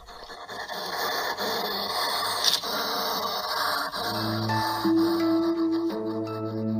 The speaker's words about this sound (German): Mein Igel hier hat übrigens Husten, glaube ich, oder er ist sauer und das hört sich dann so an.